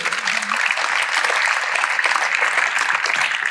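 Sustained audience applause, a dense, steady wash of many hands clapping at an even loudness for several seconds, with no voices standing out.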